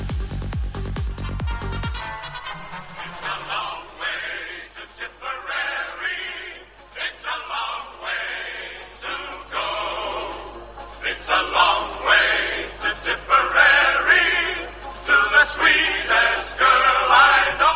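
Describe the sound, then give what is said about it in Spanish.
A thin, tinny old recording of a marching song plays continuously at moderate loudness, lacking bass, after a brief low droning tone at the very start. “…”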